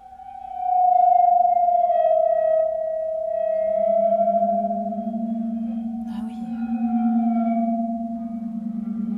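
A large black granite sound stone, with slices cut inside so that it vibrates, being rubbed on its edges with wet hands, giving a loud, sustained, whale-like hum of two steady tones that slowly waver and shift in pitch, with one brief scrape partway through.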